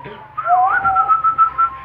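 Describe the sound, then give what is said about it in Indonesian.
A person whistles a clear tune that rises and dips, then settles into a pulsing, wavering tone, heard alone over a faint low background hum, whistling to summon wind. “kok tiba-tiba keluar ilmu-ilmu anginmu yang pakai siulan kok ya.”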